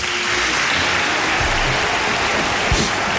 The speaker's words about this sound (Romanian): Încă o dată, mii de aplauze, bravo!